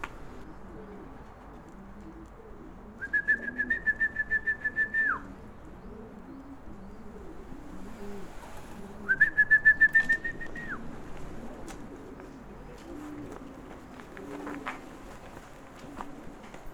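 Several pigeons coo steadily in low, rolling murmurs throughout, overlapping one another, while two short bursts of a higher, rapidly pulsing whistle-like tone cut in partway through.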